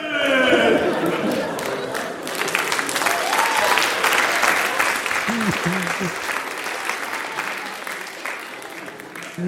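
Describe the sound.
A crowd of people playing employees in a role-play roars and yells loudly together, voices imitating lions, with clapping and scattered shouts blending into a dense, sustained wall of noise.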